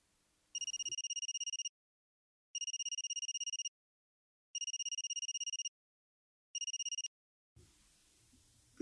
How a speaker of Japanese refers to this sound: 運転手の手際の悪い運転が目立ち徐々に苛立ちを覚え始めた時再び携帯電話が鳴った